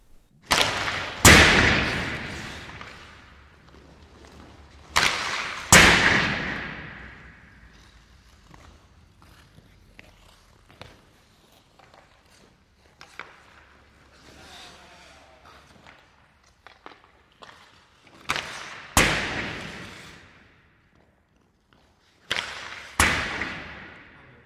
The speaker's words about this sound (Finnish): Joo, se oli, se oli lämärin ääni. Se e, ei toki ollut ehkä niin mm, lempeä lämärin ääni kuin Karoliina tarkoitti. Tämä oli selvästi äänitetty jäähallissa ja siinä oli aika tuommoinen, voisi sanoa jopa aggressiivinen omainen kaiku.